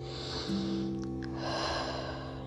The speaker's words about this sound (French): Et pour la manifester, je vous invite à prendre une grande respiration